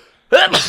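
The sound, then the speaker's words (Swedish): A single sharp sneeze bursts out after a brief near-silent moment, loud and abrupt with a breathy, hissing tail. “Prosit! Ursäkta.”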